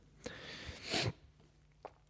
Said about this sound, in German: Ja, ich habe schon wieder geschnieft, jetzt ist es mir aufgefallen.